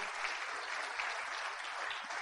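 Steady audience applause fills the moment, a dense, continuous patter of many hands clapping at an even loudness with no voices standing out.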